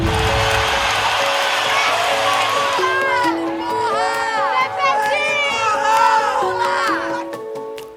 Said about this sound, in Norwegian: Nå ser han utover partifellene som står og jubler på valgvaka, og han kan jo kanskje til og med høre bruset fra tusenvis av brasilianere utenfor som er i gatene og feirer